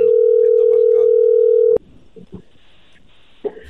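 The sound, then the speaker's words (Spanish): A steady, loud telephone ringing tone as a radio show dials a call hums at one pitch for nearly two seconds, then cuts off abruptly with a click, leaving faint murmuring voices and line noise. “Ahí está marcando.”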